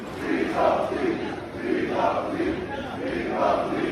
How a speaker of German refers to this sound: Kurz danach ziehen hunderte Jugendliche in Athen durch die Straßen, um für seine Freilassung zu demonstrieren.